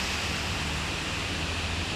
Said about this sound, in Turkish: Abi buralar fena. Buralar dere gibi oldu buralar. Buralar çok kötü.